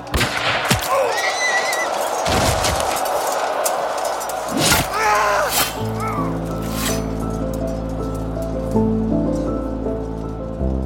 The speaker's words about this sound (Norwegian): Eh, Berdon Segelstad, den beste skytteren i området med det beste geværet, legger an mot en granlegg og brenner av et skudd. Han skal ha brukt en sølvknapp fra sin egen jakke, som han har knadd til ei kule, og så treffer han Sinclair midt i panna.